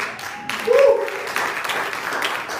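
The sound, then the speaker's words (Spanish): An audience claps right after a spoken prayer, in a dense, steady wash of applause lasting a few seconds, with a brief vocal sound or cheer rising over it partway through. “¿Cuántos pueden darle un aplauso?”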